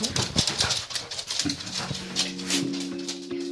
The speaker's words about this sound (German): Ihre zwei anderen Hunde dackeln ihr hinterher. Meine zwei, dann kommt mal mit.